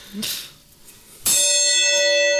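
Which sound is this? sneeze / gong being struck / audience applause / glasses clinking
gong being struck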